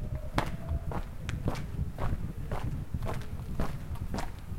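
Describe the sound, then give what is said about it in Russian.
Footsteps walking at a steady, even pace, about eight crisp steps, over a constant low outdoor rumble, as someone wanders the narrow streets of an outlying district of Tbilisi lined with one- and two-storey houses and high fences. No one speaks. “Уже 15 минут я брожу по узким улочкам одного из отдаленных районов Тбилиси.”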